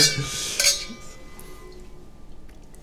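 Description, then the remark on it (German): Bright glassy clinks of wine glasses ring out during a toast at the start, a couple of quick touches with a sustained high tone, followed by quieter rustling and faint sipping of wine without talk. “Wir mussten jetzt alle nochmal einen großzügigen Schluck nehmen, ja.”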